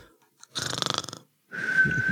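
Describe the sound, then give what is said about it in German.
A person mimics cartoon-style snoring: a short rattling, fluttering inhale snore followed by a steady high whistling exhale, fairly loud. “Das haben wir dann kopiert. Ja, halt äh, schnarchend.”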